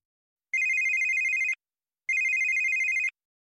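A telephone rings twice in the evening as an uncle calls the family, each ring a steady electronic trill lasting about a second with a pause between, clear with no voices.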